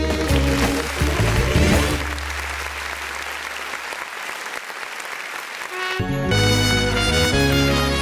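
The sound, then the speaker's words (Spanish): A recorded song plays loudly, with steady bass and layered instruments; the middle stretch turns into dense, hissy noise like cheering before the full band sound returns near the end. “Eh, me mandó una canción que Buenas, Venga de ahí.”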